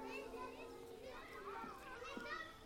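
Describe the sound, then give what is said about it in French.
Children play and shout joyfully, with babies babbling, their overlapping high-pitched cries and chatter forming a steady, lively hubbub, fairly soft throughout. “J'entendais les cris de joie des petits, le babil des bébés, les bavardages des nourrices”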